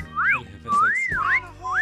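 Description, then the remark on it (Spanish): Several women in an office whistle together at their boss as he comes in, loud, their overlapping tones sliding up and down in long swooping glides with no talking. “Cada vez que entra a la oficina, todas silbamos a la par.”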